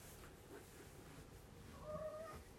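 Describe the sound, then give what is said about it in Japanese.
A single drawn-out meow from the cat Lupin (Ru) rises near the end, fairly soft, over a quiet background with no one talking. “ちょっとルパンがうるさいわねちーちゃん取られたと思ってさルーが泣いてるからね”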